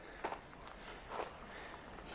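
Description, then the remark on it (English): Soft footsteps crunch on loose ground, a few slow, evenly spaced steps against a quiet, steady background hiss. “No doubt he's down there now, listening to my footsteps.”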